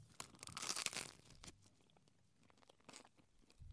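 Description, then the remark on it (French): A crackly crunch of someone biting into a crusty baguette, a loud burst of tearing crust followed by a few softer crackles and chewing sounds, with no talking. “Sauf qu'à un moment, peut-être, il y a un enfant qui vient croquer dans la baguette, comme ça.”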